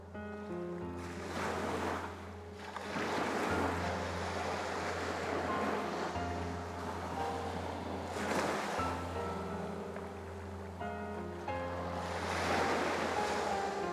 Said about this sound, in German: Nachdem ich den Motor abgeschaltet habe, verliert mein Boot schnell an Fahrt. Der Bug senkt sich ins Wasser und ich höre auf einmal das sanfte Plätschern der Wellen gegen den Rumpf.